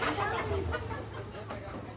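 A rooster clucks in agitated, uneven bursts as it is grabbed, fairly loud, with murmuring voices and some shuffling noise in the background.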